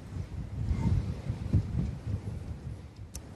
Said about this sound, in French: le, vent souffle en fait en, continu, mais il y a effectivement parfois des, rafales qui, qui soufflent très fort. On a parfois du mal à, tenir debout des rafales frôlant les, les 100 euh, km heure.